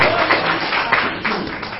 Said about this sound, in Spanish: Un aplauso nuestro Señor, aleluya.